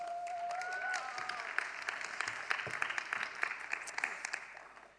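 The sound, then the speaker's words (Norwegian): Steady audience applause lasting several seconds, a dense wash of many hands clapping that fades out at the end, with a brief whistle-like tone near the start, as a woman is called up front during a teaching session in Stavanger, Norway. “Må komme opp. Til en applaus.”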